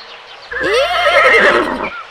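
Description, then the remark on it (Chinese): A horse lets out one loud, whinnying neigh lasting just over a second, its pitch wavering and trembling before cutting off, with no talking around it; the horse answers a duck riding past on a bicycle that greets it. “马应了一声。”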